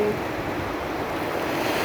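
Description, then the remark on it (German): A steady, even rush of ocean surf fills the moment, a continuous wash of water noise with no distinct breaks between waves and no voices. “Spüre nochmal nach, wie die Wellen kommen, wie sie gehen.”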